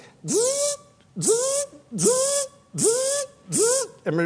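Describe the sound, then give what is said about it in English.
A person vocally mimics a nine-pin dot matrix printer printing across a line: five rhythmic, buzzy, hissing bursts of about half a second each, evenly spaced with short gaps, fairly loud. “It's a printer with a head on it that either had nine pins and uh, it would print across a line and you go”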